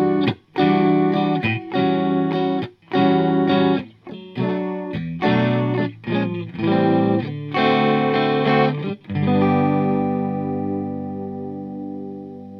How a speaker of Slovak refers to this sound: Chorus funguje kvázi podobne, ale vlastne ani nie. Chorus opäť zoberie pôvodný signál, zduplikuje ho, avšak posunie ho o pár hercov a prehrá ho s pôvodným signálom. Znie to takto.